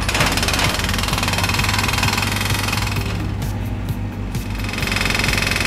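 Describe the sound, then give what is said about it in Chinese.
A loud, steady mechanical clatter of a small construction machine using a pointed drill bit to break rocks at a construction site, with a rapid pounding rhythm over a deep engine rumble that continues throughout without pause. “铲桩机用尖尖钻头打碎石块。”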